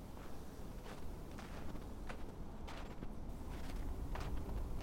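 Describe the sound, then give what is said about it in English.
Faint, distant footsteps crunch at an uneven pace over a low rumbling background at a vacant campsite, growing slightly louder as they draw closer. No one speaks. “That's when I heard footsteps approaching in the distance.”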